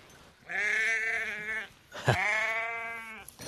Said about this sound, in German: Ah, ihr habt also Schafe selber quasi. Wie viele Schafe sind das? Das sind circa 350. Gesamt haben wir etwa 700.